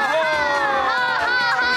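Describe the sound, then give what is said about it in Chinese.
A group of children loudly imitate a lion's roar together, their voices blending into one sustained, high-pitched group shout that holds steady without a break. “现在我要变成狮子，一起吼吼吼！大声一点！”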